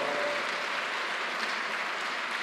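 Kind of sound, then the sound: crowd, audience applauding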